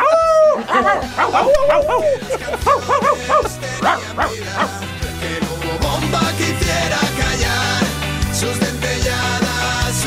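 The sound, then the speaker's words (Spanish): A person imitates a barking dog with a quick run of yelping, rising-and-falling barks over the opening seconds, backed by music that then carries on loudly alone. “lo mejor que hago es ladrar.”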